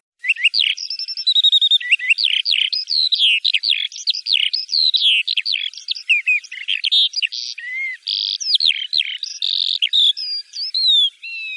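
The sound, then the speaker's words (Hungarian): A Eurasian skylark sings a long, unbroken stream of rapid, high warbling trills and chirps, bright, with no voices or other sounds. “mert a hangját halljuk, de nem látjuk.”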